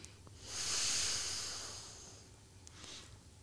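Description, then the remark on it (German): A long, airy inhale as people breathe in together with eyes closed, rising and slowly fading over a couple of seconds, followed by a shorter, softer breath near the end. It is quiet, with no talking. “Und wir atmen gemeinsam ein.”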